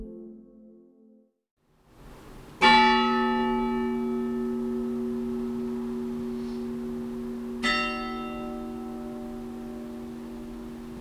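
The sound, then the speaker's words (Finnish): The bells of Espoo Church toll twice, heard at the church cemetery on a rainy autumn day, each deep, loud strike followed by a long, shimmering hum of overtones that slowly fades. No one speaks. “Niin soivat Espoon kirkon kellot.”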